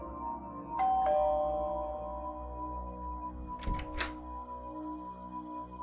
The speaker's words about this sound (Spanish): Ya en la noche, se escucha que tocan el timbre.